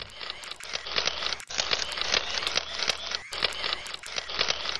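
Camera shutters click in quick repeated bursts, sharp and crisp, layered over a dense, bright hissing backdrop that runs throughout like a short jingle. No one speaks.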